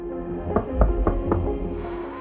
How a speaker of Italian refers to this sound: Chino, davanti al fuoco, sente qualcuno bussare alla porta.